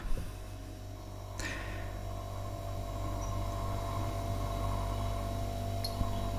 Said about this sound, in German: Äh, ich meine mein Kühlschrank.